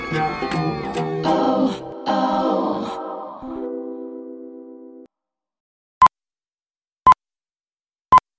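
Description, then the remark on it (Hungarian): A radio time signal: after a burst of music fades out, three short, sharp pips sound alone in silence, evenly spaced about a second apart, each clear and loud. “pontos idő, mindig pontos.”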